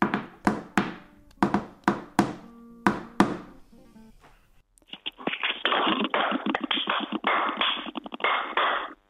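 Hand claps tap out the short rhythm of a dance in sharp, loud strikes, then a muffled, tinny stretch follows in which the clapped pattern seems repeated back, blurred and indistinct.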